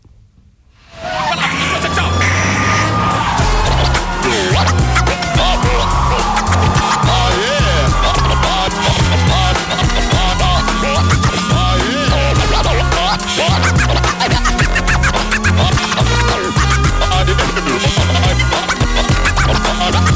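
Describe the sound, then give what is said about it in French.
A loud, dense French music track with a steady pounding beat and turntable scratching sweeping over it, kicking in abruptly after a brief quiet start and playing continuously without any talking. “ok, est-ce qu'on s'écouterait pas un second morceau Allez, allez.”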